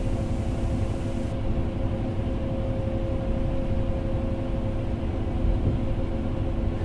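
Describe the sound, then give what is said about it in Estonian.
Steady, loud low-frequency engine drone and road rumble from inside a moving bus travelling toward a town along highway E263, with a constant hum and faint tonal whine, no voices. “nii et ma olen, ma olen praegu bussis ja ma sõidan selle linna poole. mööda ühte maanteed, mille number on E kaks kuus kolm.”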